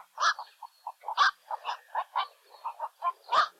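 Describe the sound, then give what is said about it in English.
A black-crowned night heron gives a rapid series of loud, hoarse croaking calls, about a dozen short harsh notes in an uneven rhythm, with no one talking. “These graceful, broad winged water birds can often be seen in flight in the mornings and evenings, which is also the best time to hear their loud, hoarse call.”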